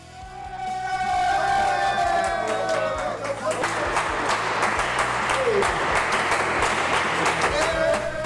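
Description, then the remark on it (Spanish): Basconia basketball teammates burst into loud, dense applause that continues steadily for several seconds, mixed with whoops and high cheering shouts, welcoming Cody Miller McIntyre after his memorable Euroliga performance. “Cody Miller McIntyre, el lobo que ayer era recibido así por sus compañeros tras protagonizar una actuación memorable.”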